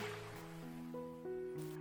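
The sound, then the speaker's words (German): A steady, hissing wash of ocean waves rolls in beneath soft, sustained musical tones that shift pitch slowly, with no voices, creating a calm and continuous backdrop. “Lausche für einen Moment den Klängen der Welle.”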